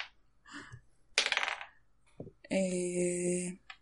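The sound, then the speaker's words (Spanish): A brief rattling clatter of dice rolled across a hard table for a stealth check in a game, a quick burst of small clicks, followed by a steady tonal hum lasting about a second. “Vale, tira sigilo.”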